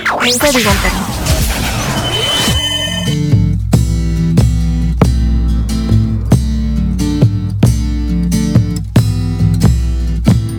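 A song begins after a brief swirling, crashing intro, then settles into a steady beat with regular percussive hits, strong bass and layered instruments, played loud and clear with no one talking.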